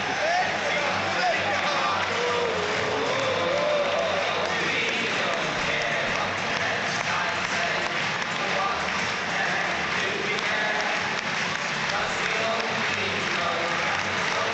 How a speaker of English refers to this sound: Evertonians on their feet to a man, applauding their side off having seen them beat Arsenal by three goals to nil.